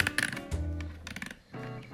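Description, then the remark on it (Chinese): A battery-powered toy laser gun, which comes in many colors, makes its color-change sound: a short, faint run of buzzy electronic tones broken by bursts of hissy, static-like noise, with a low hum underneath. “然后呢，然后呢，它总共有很多种颜色。它它转换颜色的声音是。”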